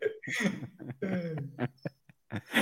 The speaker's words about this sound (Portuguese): Isso é um soluço, é um cachorrinho pequeno. Que é, é Meg que quer sair do quarto. Meg. é, bem parece um soluço. E detalhe, vai tá aumentando o som. Tá ligado que vai aumentando o som, né?